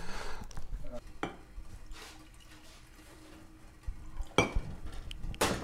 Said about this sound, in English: I'm going to make myself an Americano, which is half espresso, half hot water. That sounds fantastic. I'll make one for you Please.